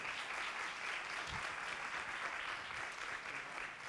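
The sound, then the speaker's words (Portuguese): Steady audience applause, a dense wash of many hands clapping at an even level for the whole stretch, with no voices standing out above it; a church audience applauding three people. “Aplauda a vida desses três aqui, daqui a pouco vai subir mais alguém.”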